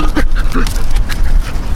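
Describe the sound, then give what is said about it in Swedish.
Dogs pant in quick, breathy bursts near a picnic, with a few soft whiny vocal sounds mixed in and some rustling in the background. “Hörni, hundarna. Vi har grejer här. Vår picknick är i fara”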